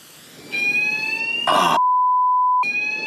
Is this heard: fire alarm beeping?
yes